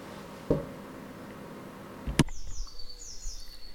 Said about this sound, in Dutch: dat je de vogels lustig hoort fluiten op de achtergrond. Prachtig.